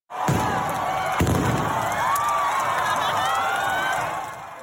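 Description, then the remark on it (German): A loud bang goes off at the start of the Lucerne carnival's morning wake-up on Dirty Thursday, followed by a second sharp boom, as a large crowd roars and cheers continuously with whistles and shouts filling the air. “Den Urknall kennen wir ja schon. Es ist der Start der Tagwache am Schmudo, also der Start der Fasnacht.”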